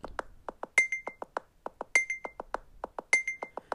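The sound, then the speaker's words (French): A phone beacon app gives off a steady rhythmic run of short electronic ticks, with a higher, ringing beep recurring about every second and a quarter, fairly quiet, with no voices, as the phone is turned. “Et écoutez bien quand je vais tourner mon téléphone.”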